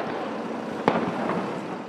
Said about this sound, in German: Auf dem Alexanderplatz beschießen sich hunderte Menschen gegenseitig mit Feuerwerk